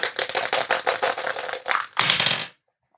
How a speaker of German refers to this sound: Achso, ich habe den W20-Würfel wieder hier.